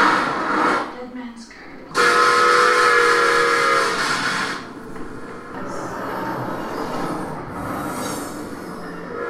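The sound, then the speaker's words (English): A toy train set chugs along, then lets out a loud, sustained whistle for a few seconds before settling back into a steady rolling clatter with faint voices underneath. “It's a cool train set though.”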